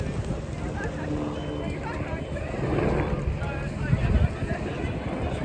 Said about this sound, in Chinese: 此时耳边传来直升飞机的声音，一定是又出大事儿了，又出大事儿了。